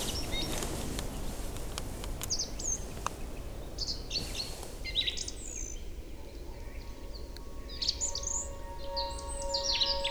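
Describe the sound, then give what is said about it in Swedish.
A Eurasian pygmy owl calls faintly in the distance at night over rocky forest ground with soft, steady whistled notes, while brief higher chirps and a low, constant outdoor hiss fill the background. “En sparvuggla spelar på avstånd.”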